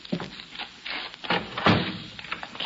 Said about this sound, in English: Now, please come in quickly so that I can close the door.